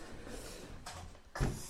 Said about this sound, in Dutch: Oké, maar ik pak even stoel erbij.